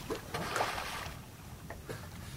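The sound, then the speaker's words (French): Several short, breathy puffs from pink river dolphins surfacing around the listener on the Nyamunda River, sharp blowing exhalations at irregular intervals over a steady backdrop of open water and faint boat noise. “C'est eux qu'on entend respirer autour de moi lorsqu'ils sortent la tête de l'eau.”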